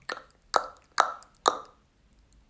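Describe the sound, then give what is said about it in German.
Four sharp, hollow beatbox tongue clicks, made by pressing the tongue to the roof of the mouth, building slight suction beneath it and snapping it quickly down, in a steady, even rhythm about half a second apart, each a bright pop with a quick decay, followed by quiet. “Also, man legt die Zunge an den Munddeck, an die Munddecke, sag ich mal, baut dann so einen leichten Unterdruck aus Luft unter der Zunge auf und dann lässt sie sich schnell runterschneiden.”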